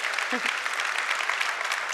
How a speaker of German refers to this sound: Kräftigen Applaus für Vegan.